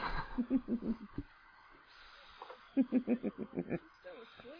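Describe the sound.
A voice imitates snoring with two bursts of rapid, rattling, snorting pulses, each a quick series of throaty grunts, fairly loud, separated by a short quiet breath.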